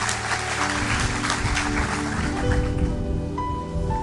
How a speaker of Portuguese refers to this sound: Vamos aplaudir a Ele, vamos ficar em pé, vamos embora.